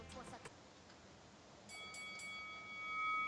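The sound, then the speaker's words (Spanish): A boxing round bell, rung from the studio controls to start the first round, is struck several times in quick succession, its bright metallic ring sustaining and slowly fading. A few faint clicks come just before it. “que está aquí en controles, que no lo habíamos saludado, suene la campana?”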